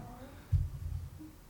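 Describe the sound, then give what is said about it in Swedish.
A low, gurgling stomach rumble swells suddenly and rolls on for about half a second before fading, fairly quiet, with no talking. “Det var min mage som”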